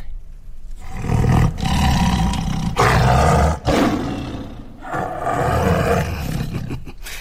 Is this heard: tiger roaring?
yes